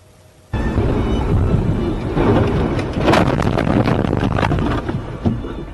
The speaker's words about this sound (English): Some dramatic and rare video now of a mudslide as it happened in southern China. Traffic moving slowly along a highway when all of a sudden cars and trucks are swept aside.